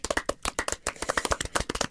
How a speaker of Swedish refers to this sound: Oh, så vilka trevliga applåder.